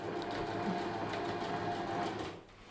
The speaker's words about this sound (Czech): Slyšíte hluk šicího stroje? co tady právě vzniká.